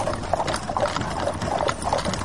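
horse hooves clip-clopping

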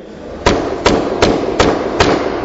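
banging on a door

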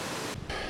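rushing river water

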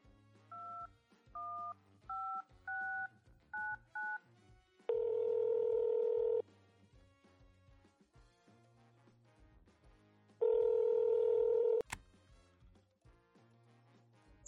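telephone dialing tones

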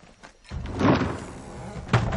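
door being shut

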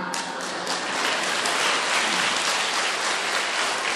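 audience applause

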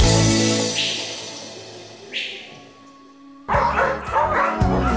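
dog barking

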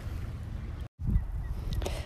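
birds calling outdoors

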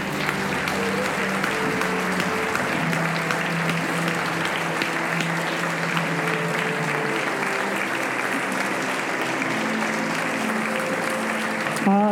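audience giving loud applause

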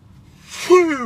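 yawn

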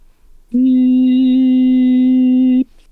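sine wave test tone

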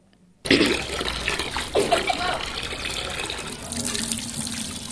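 water running

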